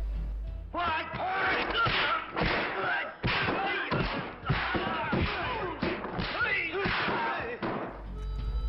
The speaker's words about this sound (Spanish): Los sonidos de un puñetazo o una patada en una pelea cinematográfica son cosas que nunca nos podrán llevar a un equívoco.